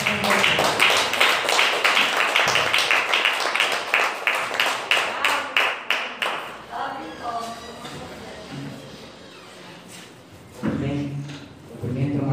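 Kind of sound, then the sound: crowd, audience clapping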